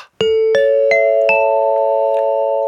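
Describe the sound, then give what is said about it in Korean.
A bright correct-answer ding-dong-daeng chime from the Korean radio show FM Daehaengjin plays alone: four quick, bell-like struck notes in even succession, each ringing into the next and leaving a loud, sustained shimmering tone that slowly fades. “확실한 칭찬, 확실한 딩동댕, 확실한 선물이 있는 곳 어딥니까?”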